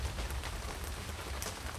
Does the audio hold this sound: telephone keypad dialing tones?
no